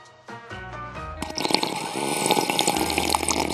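A few clinking taps on glass, then a steady stream of water, said to come from a well, pours into a very dusty drinking glass, the sound rising in pitch as it fills, fairly loud with no talking.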